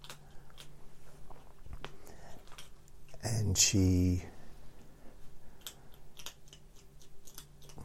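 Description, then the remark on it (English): Crisp crunching of someone chewing food, a steady run of irregular small clicks and bites, briefly joined by a louder voice in the middle. “You hear him crunching away.”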